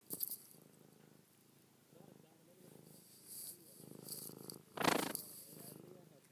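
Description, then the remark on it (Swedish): A cat named Gustav, who lives nearby and often visits the Hedgärde lake bathing spot, purrs in a steady, rumbling rhythm of low pulses, with occasional rustling bursts as its tail brushes the microphone. “Det är en katt som bor en bit härifrån och som är här väldigt ofta och är väldigt kelsjuk.”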